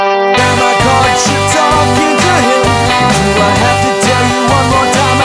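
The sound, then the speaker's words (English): A loud instrumental passage, processed through a Fairchild EQ, drenched in heavy reverb, notes smearing into a washy, sustained tail over a steady low rhythmic pulse, with no voices. “And yeah, and I'll throw a little bit of that reverb on there.”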